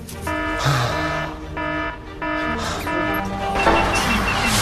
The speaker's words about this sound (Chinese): 堵车了吗？前面堵车了。